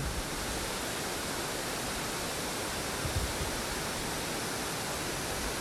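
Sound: waterfall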